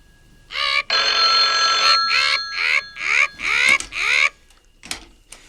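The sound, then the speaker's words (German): A loud telephone ring in a series of bright, trilling bursts, the first one long and sustained, followed by several shorter rings, then a faint click near the end. “Ach, ich Idiot! Telefon!”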